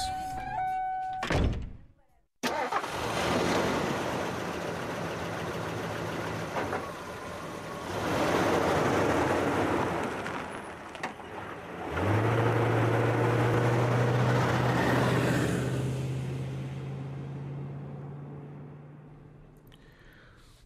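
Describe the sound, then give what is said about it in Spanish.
A heavy thunk like a door closing, then a broad rumble before an engine catches and settles into a steady, low, droning run that holds for several seconds, then fades. “¿qué te parece que vayamos encendiendo los motores del cocodrilo para que comencemos este recorrido de esta noche?”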